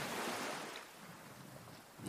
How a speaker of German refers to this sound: Hör den Wellen zu. Und genieß einfach diese abendliche, nächtliche Stimmung. auf deinem Strandspaziergang.